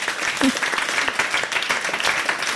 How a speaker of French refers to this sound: on peut vous applaudir